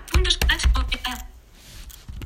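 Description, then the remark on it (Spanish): Keys tapped on an Orbit Reader braille display keyboard set to Spanish, typing the word "Hola": about five crisp clicks in quick uneven succession, followed by a second of faint hush with no talking. “Entonces, entonces voy a escribir. Hola.”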